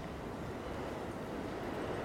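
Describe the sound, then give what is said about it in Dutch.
A steady, continuous rumble of a New York City subway train running, heavy in the low end with a constant droning roar and no pauses, loud, with no voices. “Om de eenzaamheid te bekampen is de metro mijn favoriete plek.”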